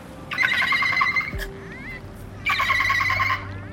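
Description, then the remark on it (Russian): A person mimics a dolphin's call: two bursts of high, squeaky chattering clicks and whistles, fairly loud, separated by a brief pause with a low hum underneath. “Я сдел- могу сделать звук дельфина.”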